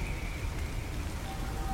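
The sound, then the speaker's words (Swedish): Heavy rain lashes in over a town while a storm blows out at sea, a steady, dense wash of noise, loud and unbroken throughout, with no voices and no pauses in the downpour. “det stormar ute till havs och eh, ett eh, regn som piskar in här över den här gudsförgätna stan.”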